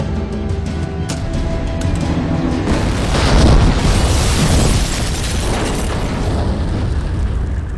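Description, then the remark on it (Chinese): A bomb planted in the car carrying a general goes off in a loud, deep boom, followed by a sustained roaring rumble that swells around the middle and slowly trails off, with no voices. “这不，趁着开会的机会，把将军请到自己装了炸弹的车里，半途下车。”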